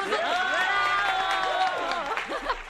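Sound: applause and cheering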